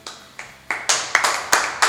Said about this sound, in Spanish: Aplauso, aplausos. Aplauso cerrado.